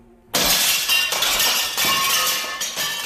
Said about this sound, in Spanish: Si no, ¿cómo sabría que ahora mismo está a punto de, de romperse ese foco?